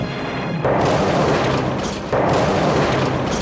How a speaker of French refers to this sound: réacteur N4 de la centrale nucléaire de Tchernobyl en Ukraine explose accidentellement lors d'un essai technique, comme le rapporte dans cette vidéo l'Institut de radioprotection et de sûreté nucléaire. À 1h23 minutes 44 secondes, c'est l'explosion.